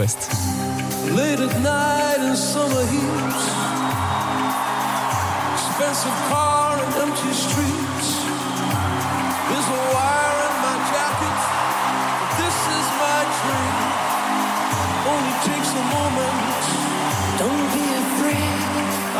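A pop duet plays, with sung vocals over a steady, pulsing bass beat and synth backing, loud and continuous throughout.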